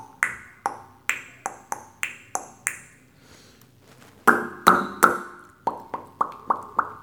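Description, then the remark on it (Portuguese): A voice imitates horse hooves with sharp tongue clicks made by friction in the mouth, a steady clip-clop rhythm of hollow pops that pauses briefly, then returns louder and continues in quick succession. No one speaks. “E uns que a gente não põe a mão, mas que a gente usa a língua, usa atritos na boca, né? Como por exemplo esse cavalinho, esse estalo.”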